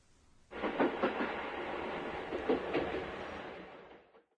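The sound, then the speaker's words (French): A moving train rumbles steadily past, its wheels clacking over rail joints in a quick repeating rhythm, loud and close for about four seconds before fading out. “C'est le son d'un train en mouvement, n'est-ce pas Oui.”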